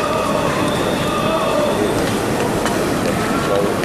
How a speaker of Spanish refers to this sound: El rachear de las zapatillas.